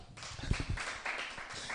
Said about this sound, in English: 40 days fasting and prayers, March through. You can clap.